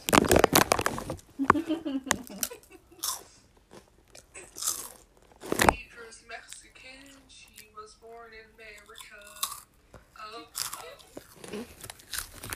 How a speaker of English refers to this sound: This is gonna be like a little ASMR, I guess. Because, yeah, why not? I got some flaming hot Cheetos with me. And we're just gonna munch on these hot Cheetos.